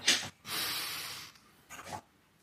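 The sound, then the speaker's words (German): A person sitting upright with eyes closed breathes deeply: a sharp nasal sniff opens into a long, steady breath through the nose, followed by a softer, breathy exhale through a slightly open mouth; quiet, with no talking. “Dann seid ihr jetzt eingeladen, euch schön aufrecht hinzusetzen, die Augen zu schließen und tief durch die Nase einzuatmen und durch den Mund, durch den leicht geöffneten Mund wieder auszuatmen.”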